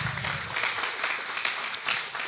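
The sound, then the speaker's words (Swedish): An audience breaks into steady applause, a dense wash of many hands clapping at a moderate level with no voices over it. “För så många var vi 2020 en stor applåd på det, eller hur?”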